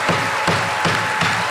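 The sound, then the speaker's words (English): A gavel bangs about five times in a steady, evenly spaced rhythm, each strike a sharp, fairly loud knock, with no voices over it. “This is the sound of a gavel.”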